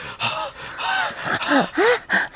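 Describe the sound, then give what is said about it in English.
Ragged out-of-breath gasping of someone charging in: about five quick, heaving breaths in a row, each with a strained, voiced edge, growing harsher toward the end. No one speaks. “from behind you, Willis and Two XL, you hear Skip come charging in up here, like out of breath”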